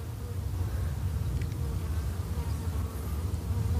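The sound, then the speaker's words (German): A steady, dense buzzing of many honeybees fills the air near a hive, a continuous low drone with individual bees briefly passing closer, no voices present. “Wir sind hier in Sichtweite vom Bienenstock.”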